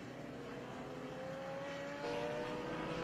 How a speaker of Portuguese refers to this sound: Tem alguém chegando aí, passaram aqui. Um helicóptero.